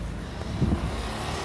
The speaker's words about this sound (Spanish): Con mi cuñado, yo, bueno, empezamos a mirar el auto, intenté de vuelta arrancarlo, arrancaba.